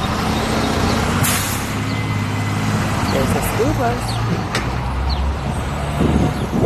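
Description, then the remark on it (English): A school bus rumbles past on busy Fifth Avenue in the morning, its low engine drone steady, with a brief hiss of air brakes and a voice speaking briefly over the traffic. “a school bus.”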